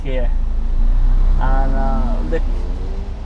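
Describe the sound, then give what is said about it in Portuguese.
A taxi drives along the main street of Gozo, Malta, from the port to the island's centre. A steady low engine rumble fills the cabin while a man speaks briefly over the road noise from inside the vehicle. “O taxista que nos leva do Porto ao centro da ilha é um defensor desta ideia.”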